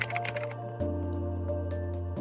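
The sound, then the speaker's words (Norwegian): Quick tapping on a computer keyboard during a web search: a dense burst of clicks at first, then a few scattered keystrokes over a steady low background hum, with no voices. “Eh, og i og med at det handlet om folk som ikke kan rape, på en måte, så googler jeg 'People Who Can't Burp'.”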